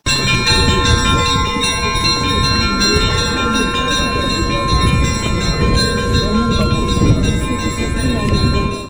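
Church bells ring out a festive Easter peal, all the bells sounding at once with many overlapping tones sustained and clanging together without pause, loud throughout.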